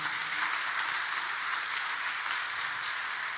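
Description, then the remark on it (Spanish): A crowd claps steadily throughout, applauding in thanks to the Lord during a sermon, a dense, continuous wash of applause from many hands with no voices standing out, sustained at an even level for a few seconds. “Denle un buen aplauso, dígale, gracias Señor.”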